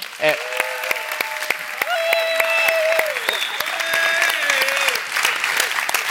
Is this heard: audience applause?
yes